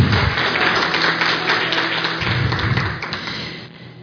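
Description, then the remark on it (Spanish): A church audience applauds in a steady, dense wash of many hands clapping together, holding strong for about three seconds before thinning and fading out toward the end. “No, aplauda más fuerte, por favor.”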